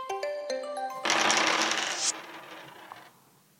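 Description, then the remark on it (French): A short bright chime melody, then a loud rattling clatter of dice being thrown in a game and tumbling for about a second before settling and fading into quiet. No one speaks. “Acceptez-vous de vous prêter au jeu du lancer de dés, des dés dessiner et surtout nous indiquer ce que le hasard vous suggère.”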